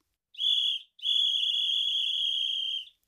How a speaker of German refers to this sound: Nicht einmal so ein kleines Pfeiferl ertragen die.